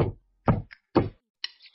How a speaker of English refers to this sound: Knock, knock, knock. Who's that knocking at our little front door?